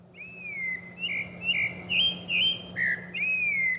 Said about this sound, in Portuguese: As aves têm o que a gente chama de sotaque. Aves de diferentes regiões, elas vão ter uma variação no canto. Olha só, esse é um sabiá laranjeira paulistano da gema.